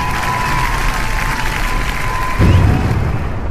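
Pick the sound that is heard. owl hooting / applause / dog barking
applause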